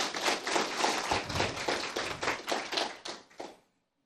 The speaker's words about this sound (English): Don't worry, Bill, you won't get proud if you accept the applause.